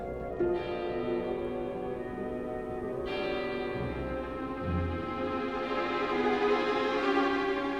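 A tower clock bell strikes slowly, each deep resonant stroke ringing on and overlapping the next, roughly a few seconds apart, with no voices present.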